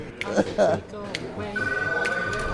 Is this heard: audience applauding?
no